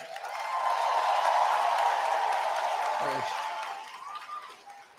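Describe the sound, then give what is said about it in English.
A large crowd breaks into a sustained round of applause for Carolyn Bennett that swells quickly, holds steady for several seconds, then gradually fades, with some indistinct voices mixed into the clapping. “And, and while we're on applause, how about a massive round of applause for someone who gave her farewell speech in the House tonight, Carolyn Bennett.”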